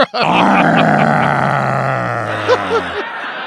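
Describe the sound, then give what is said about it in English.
A man lets out a loud, drawn-out growling roar imitating a lion, lasting about three seconds, with a couple of small grunting breaths trailing off at the end. “I'm a lion. Arr. So you're scared now, aren't you?”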